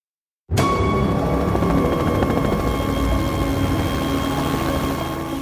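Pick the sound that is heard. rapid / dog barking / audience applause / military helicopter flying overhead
military helicopter flying overhead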